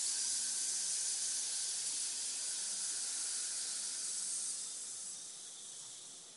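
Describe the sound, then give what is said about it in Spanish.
A long, steady hissing exhale, like breath pushed out through the teeth, made while raising the hands above the head with palms up, held alone for several seconds before tapering slightly at the end. “Levanto las manos por encima de mi cabeza con las palmas hacia el techo y exhalando con el sonido expulso esa energía ahí”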